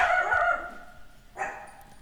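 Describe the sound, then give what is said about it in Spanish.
Female dogs bark at someone arriving at a house in Acapulco, in two bursts: a longer high-pitched yapping stretch, then a shorter sharp one a moment later. The barking is loud, with no talking. “Obviamente me traje las perritas a Acapulco. Y llegó alguien a la casa y por eso hay ruido.”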